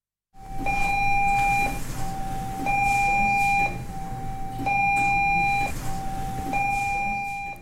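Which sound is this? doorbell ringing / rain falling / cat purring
doorbell ringing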